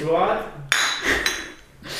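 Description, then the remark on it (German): Glasses clink together in a toast, two bright ringing taps about half a second apart, each chime lingering briefly, with faint voices murmuring around them. “Ich finde, darauf kann man anstoßen.”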